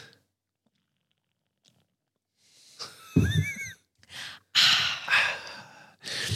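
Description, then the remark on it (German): After a quiet pause, someone takes a sip of water from a bottle: a squeaky, gurgling gulp followed by a few loud, breathy swallows and exhales in quick succession. “Jetzt Ich direkt halt, mal einen Schluck aus meiner R ab, da ist nur Wasser drin.”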